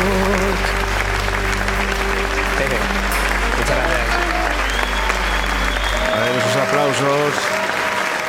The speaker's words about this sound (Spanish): aplausos en directo también, ¿eh? Venga, que a ver la gente que está a la pecera. Venga, aplaudimos todos. Bravo, bravo, bravo.